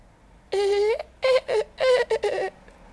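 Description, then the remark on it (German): A human voice imitates dolphin calls with a series of shrill, squeaky whistles, about four bursts in quick succession, loud, with no other talking. “Mit war ein Delfin, ne?”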